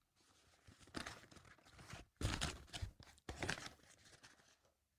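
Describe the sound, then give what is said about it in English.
Light paper rustling and crumpling in the background of a classroom, in several crinkly bursts with brief pauses between them, growing louder in the middle before trailing off. No one speaks. “Now, just some like light paper, just like rumbling in the background like this.”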